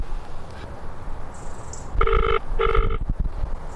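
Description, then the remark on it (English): A telephone ringing tone sounds in a quick double burst, two short electronic rings close together, heard through a line over a steady background hiss. “ringing.”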